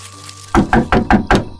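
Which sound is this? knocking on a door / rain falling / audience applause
knocking on a door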